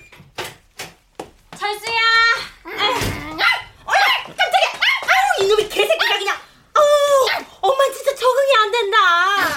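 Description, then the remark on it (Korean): A puppy barks and yips repeatedly in sharp, high-pitched bursts, some short and some drawn out into whines, loud with no pauses of real silence. “아, 뭐긴 저 개새끼지.”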